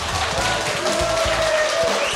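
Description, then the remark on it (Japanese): About 500 fans applaud at the second a singer fan appreciation event in Okinawa, a dense wash of many hands clapping at an even loudness throughout, with a faint sustained tone running underneath. “いやありがとうございます、ね、会場500人のファンの方から今、生前拍手をいただきまして”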